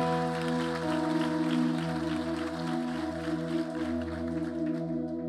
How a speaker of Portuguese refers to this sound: Aplauda Jesus de verdade.